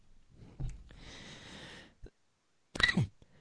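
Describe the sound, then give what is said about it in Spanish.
A soft sniff and a drawn-out breathy rasp, then a short pause and one sharp, harsh cough, a recurring cough made worse by cold weather, loud against an otherwise quiet background with no talking. “Bueno, perdonen la tos, que de vez en cuando me ataca.”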